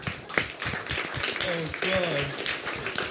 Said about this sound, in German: okay, kleiner Applaus für deine lustige Obst- und Gemüsegeschichte.